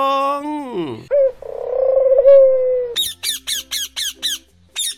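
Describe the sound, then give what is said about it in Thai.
Birds call with harmonic, squawking notes: a long descending call, a sustained tone, then a rapid series of about seven short, bright chirps in a steady rhythm. No one speaks. “เสียงของแมลง มแมลง เสียงนกร้อง นกร้อง”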